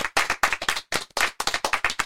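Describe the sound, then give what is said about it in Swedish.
Brisk hand clapping in a studio, applause for a guest, a quick series of sharp claps in an uneven rhythm from one or a few people, fairly loud and with no voices over it. “Ah, du får en applåd för det! Applåd!”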